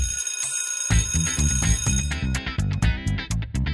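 A loud electric school bell rings continuously at the start, then gives way to an upbeat musical jingle with steady rhythmic hits, no voices present.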